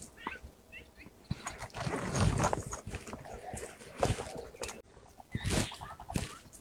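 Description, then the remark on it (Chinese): A plain laughingthrush gives short, repeated chirping calls, then a run of rising, fluty notes, over rough bursts of rustling background noise. “这个鸟只有在山里有，还有咱们家，咱们家那个就是加油站旁边那条路上， 嗯， 春天的时候会有， 咱们家那头也因为靠西山近， 也是山，对，山噪梅。”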